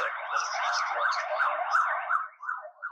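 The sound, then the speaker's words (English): An emergency vehicle siren wails steadily and fairly faintly, its tone wavering up and down in a continuous rise-and-fall with no voices over it. “sounds like a freaking fire's happening in the background”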